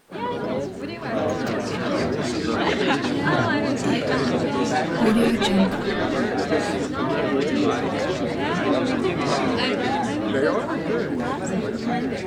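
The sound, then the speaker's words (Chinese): Dense, steady crowd chatter from a noisy cocktail party, many overlapping voices blending into a loud, continuous babble with no single speaker standing out for the whole twelve seconds, played as an example of the cocktail party effect in speech perception. “在这样一个很嘈杂的环境当中，对我们人类来讲，我们是还是比较容易呃关注到我们想听的一个人的说说话呃话音当中的。”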